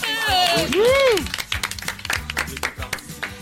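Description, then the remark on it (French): A small group applauds the winner of a game, brisk overlapping claps lasting a couple of seconds, preceded by a swooping whooped cheer from a voice. “bravo, on peut l'applaudir.”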